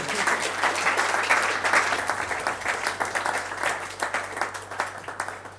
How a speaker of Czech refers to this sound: A pojďme mu ještě jednou zatleskat.